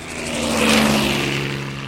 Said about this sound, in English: You have to look up to see if that helicopter is passing overhead.